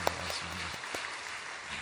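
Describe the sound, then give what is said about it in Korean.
A small church audience at an early-morning dawn service clapping together to give glory to God, a soft, steady patter of many hands lasting the whole moment without a clear break. “우리 하나님께 박수로 영광을 드리겠습니다.”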